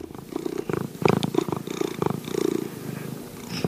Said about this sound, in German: Durchschnittlich schnurrt eine Katze in ihrem Leben rund 11.000 Stunden. Das sind mehr als 456 Tage am Stück.